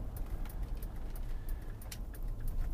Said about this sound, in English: Had a uh, had two deer run out in front of me. Missed the first one, hit the second one, and you can hear the hyper flash now.